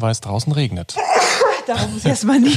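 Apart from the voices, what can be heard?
sneeze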